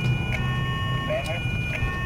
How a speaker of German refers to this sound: Schalten Sie die Sirene ab.